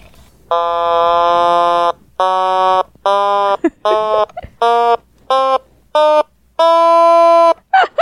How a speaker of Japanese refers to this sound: それで、音色がちょっと増えたおおいいね、どんな音だったっけスノータマちゃんスノーおたまちゃんの音はどんな感じの音だな